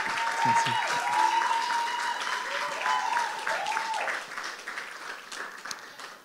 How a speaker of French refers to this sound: on peut les applaudir.